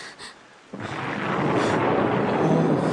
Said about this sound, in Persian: هوا طوفانی شده بهتر زودتر برگردی من از این هوا لذت میبرم بارها تو دریا با همچین هوایی زندگی کردم